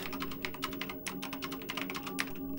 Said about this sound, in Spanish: Tecleo en el ordenador.